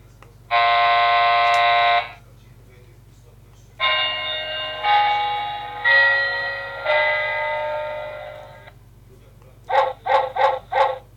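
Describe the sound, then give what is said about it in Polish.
Several different alarm clock tones, from a device offering 10 different alarms, play in turn: a steady harmonic buzz, then ringing chime-like tones, and finally four quick rhythmic beeps, all loud with no talking. “I teraz on tu ma 10 różnych alarmów.”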